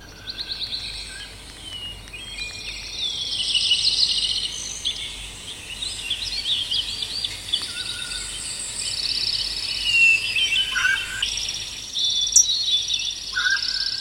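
A soundscape made to represent a moss fragrance: a steady bed of insect chirring fills the air while birds chirp and twitter on and off, with a soft wind rustle underneath. No one speaks; the layered nature sounds continue throughout.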